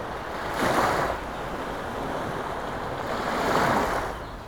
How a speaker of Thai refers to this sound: ว่ากันว่า เสียงคลื่นที่กระทบฝั่งจะแตกต่างกันออกไปในแต่ละช่วงเวลาและบริเวณที่คลื่นพัดมากระทบ